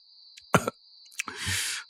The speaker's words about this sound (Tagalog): Iswing, hindi ko na yata kayang magtinda. Tatlong linggo na akong inuubo.